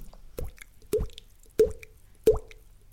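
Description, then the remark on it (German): A voice imitates a dripping water tap with mouth plops, five wet drip sounds at a steady rhythm about every two-thirds of a second, fairly loud, with no talking. “Ich kann, ich kann einen Wasserhahn machen.”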